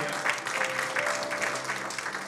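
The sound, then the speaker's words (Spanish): A church audience claps steadily for Christ, a dense wash of many hands applauding at a fairly even loudness, with a faint sustained tone running underneath for much of it. “denle ese aplauso fuerte a Cristo porque Él es bueno.”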